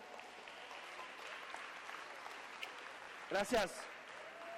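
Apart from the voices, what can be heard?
audience applause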